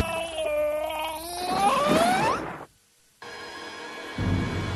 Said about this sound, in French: Vous avez entendu ces cris